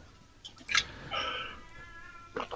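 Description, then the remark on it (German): A cat yowls in a drawn-out, wavering cry lasting about half a second, preceded by a short sharp sound and followed by brief rustling; fairly loud, with no talking. “Oh, meine Katze schreit.”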